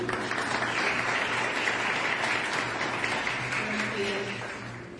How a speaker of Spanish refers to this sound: Un aplauso.